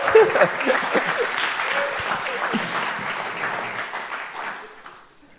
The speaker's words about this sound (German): Gebt dir einen riesen Applaus.